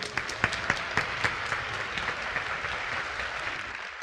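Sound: warm audience applause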